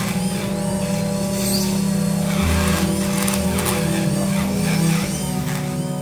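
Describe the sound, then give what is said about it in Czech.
A surgical burr spinning at up to 80,000 revolutions per minute drills into the skull bone behind the ear, the drilled bone fragments sucked away by suction, with a steady, droning mechanical whine and gritty hiss, running continuously for about six seconds, its pitch shifting slightly partway through. No one speaks. “Ona odvrtává kousky té kosti, které jsou pak odsávany vlastně odsávačkou pryč.”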